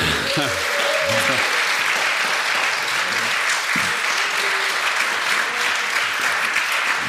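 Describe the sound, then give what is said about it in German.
Steady, sustained applause from a studio audience in a TV studio broadcasting from Munich, a dense wash of clapping that fills the studio for several seconds, with a few voices briefly audible within the crowd. “da gibt es natürlich hier im Studio ein bisschen mehr Applaus, weil wir aus München senden.”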